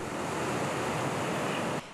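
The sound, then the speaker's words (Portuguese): A loud, steady roar of rushing floodwater from a storm pours through the city streets of Rio de Janeiro without a break, dense and unbroken, easing slightly in the final moment. No voices are heard. “Uma enxurrada assustadora. O temporal provocou alagamentos por toda a cidade.”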